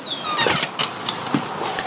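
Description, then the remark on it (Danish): A door creaks with a few thin, high squeaks over scraping, rustling movement, with no one speaking. “Skal jeg lukke døren?”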